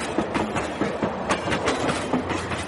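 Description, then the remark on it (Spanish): A passenger train car heading north, before reaching Rosario, rattles along the rails with a steady clickety-clack, rhythmic wheel clacks repeating over a dense, rumbling roar of rolling stock, fairly loud throughout. “me subí en once a un tren que se llamaba El Tucumano y me fui al norte.”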